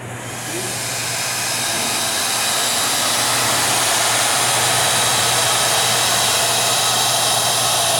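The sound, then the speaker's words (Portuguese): A hair dryer blows steadily, a loud, even whooshing roar with a low motor hum underneath, ramping up in the first half second and then holding constant with no talking. “É um secador de cabelo. Um secador de cabelo, beleza?”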